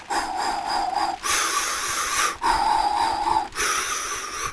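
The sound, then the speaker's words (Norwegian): A person demonstrates how humans breathe, breathing heavily and deliberately, alternating long rasping inhales and exhales in a steady rhythm, about four loud breaths with no talking. “Vi kunne puste mye mer, og vi trengte ikke å regulere farten etter hvor eh, mye oksygen vi hadde.”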